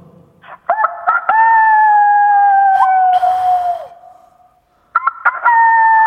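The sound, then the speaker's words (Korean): A person imitates a rooster's crow as a greeting over a phone connection, loud: a long drawn-out cock-a-doodle-doo lasting a few seconds, a brief pause, then a second crow beginning. “제 뻐꾸기와 닭으로 한번 또 만나보도록 하겠습니다.”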